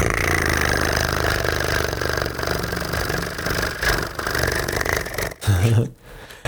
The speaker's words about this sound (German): So, ich, ich greife mal in die Trommel rein und rühre mal.